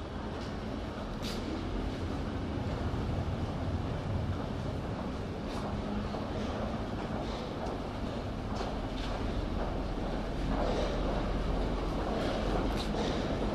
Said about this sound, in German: Es ist ein Zug eingefahren. Es sind 150 Prozent mehr Leute jetzt hier drin.